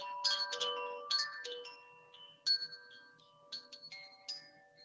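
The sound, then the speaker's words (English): Chimes are struck one after another, their bright metallic tones overlapping in harmonic intervals and ringing on into sustained, harmonious chords. They are moderately loud, with no voices. “The mathematical ratio is between the notes and the musical interval, and how specific alignment of mathematical ratios to create different intervallic structures create harmony, exemplified here in this chimes.”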